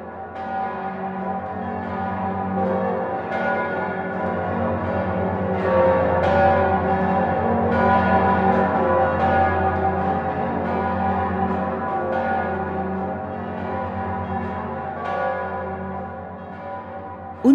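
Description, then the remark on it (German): The large bells of Passau Cathedral in Bavaria, Germany, ring together in a full, continuous peal, deep booming tones overlapping with sustained ringing overtones and periodic strikes, loud throughout with no talking. “Unbestreitbar und vor allem unüberhörbar zählen die Passauer Domglocken zu den gewaltigsten Stimmen im bayerischen Glockenhimmel.”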